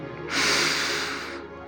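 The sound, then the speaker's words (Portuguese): A single deep, airy inhale drawn through the nose, rising quickly and held steady for about a second before easing off, with no talking. “Perceba o ar em sua respiração. Inspire o ar pelo nariz”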